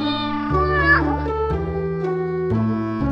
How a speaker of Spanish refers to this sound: Un sonido largo una mezcla de maullidos y ronroneos. Es una petición más exigente.